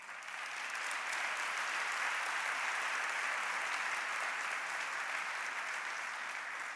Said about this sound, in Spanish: Un aplauso al Señor.